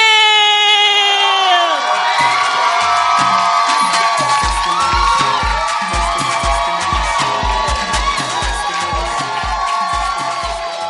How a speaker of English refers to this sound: So don't stop clapping. Put your hands together and let's welcome our brother